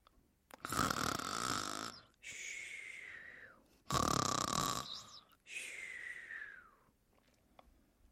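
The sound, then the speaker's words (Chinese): A voice imitates Grandpa Koala, a sleeping koala, snoring: two loud cycles, each a rough, rattling inhale followed by a wheezy, whistling exhale that slides downward in pitch. No speech. “动物们陆续的离开了空地，只剩下变色龙、睡着的无尾熊爷爷，还有小朵和小扑。”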